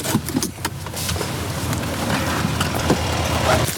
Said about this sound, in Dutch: We rijden nu in noodvaart het dorp door om eh, te kijken of we nog getuige kunnen zijn van een actie.